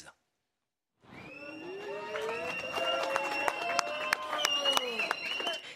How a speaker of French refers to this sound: C'est sous les applaudissements de ses soutiens que le père de la petite fille agressée est sorti du tribunal.